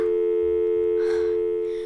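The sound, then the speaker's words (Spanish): A mobile phone's busy tone after a dropped call: a steady, loud electronic hum that drones on without a break, with a couple of faint rustling noises in the background. “Con estos celulares no se puede ni hablar.”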